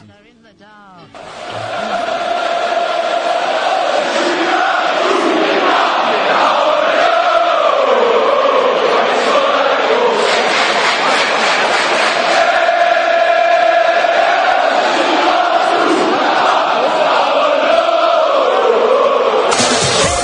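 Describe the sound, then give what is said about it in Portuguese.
Newcastle United supporters sing a chant about Alan Shearer together, a loud, sustained wall of massed voices with a rising and falling melody that keeps going steadily for about twenty seconds. “E a gente vai ouvir aí, já que o Alan Shearer era o homem gol, uma música que a torcida se pergunta, né? Como que ele fez aquele gol?”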